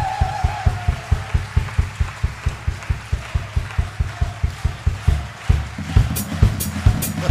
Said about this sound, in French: Allez, on l'encourage encore en applaudissant.